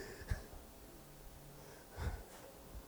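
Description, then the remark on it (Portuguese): A woman sneezes twice, two short, breathy bursts spaced about a second and a half apart, fairly soft against a quiet background with no talking. “Quando as mulheres começam a espirrar é porque o, o ar tá bom.”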